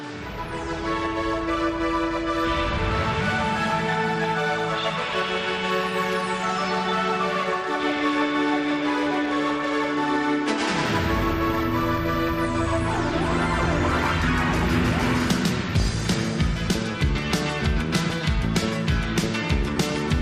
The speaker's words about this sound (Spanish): Aunque solo sea por homenaje a … y a los Batmaníacos, vamos a escuchar un trocito de ese concierto que sin embargo es una pena porque el disco no suena nada bien.